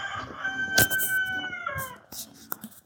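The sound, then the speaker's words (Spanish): A rooster crows in one long, drawn-out call while hens cluck and scratch around it in short, scattered bursts. “Cantan para dormirse y cantan para levantarse, ¿no?”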